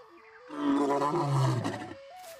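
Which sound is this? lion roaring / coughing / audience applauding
lion roaring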